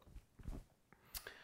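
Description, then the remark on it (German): Faint, soft thuds of footsteps as someone walks around on a wooden floor, with a few quiet creaks and one sharper crack, heard at low level with no talking. “wenn du ein bisschen Knacken im Hintergrund hörst, das ist mein Boden, mein Holzboden, wo ich hier gerade rumlaufe.”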